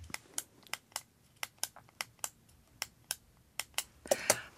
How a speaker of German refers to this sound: Ich bin noch da, warte. Ähm. ich habe es an dem Klicken des äh, Kugelschreibers. Kugelschreibers gemerkt.